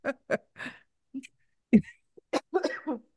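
A fairly loud series of short coughs and throat-clearing bursts, arriving in irregular clusters with brief pauses between them, with no talking.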